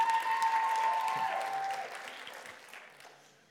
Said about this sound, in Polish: Jakoś tak wy mieliście najwięcej tych oklasków. Dlaczego?